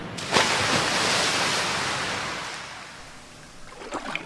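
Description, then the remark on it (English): A sharp splash as a paper boat lands in a dirty, smelly sewer, followed by a steady rushing, hissing flow that slowly fades, with a couple of small splashes near the end. No voices. “The boat landed, splash, in a dirty, smelly sewer.”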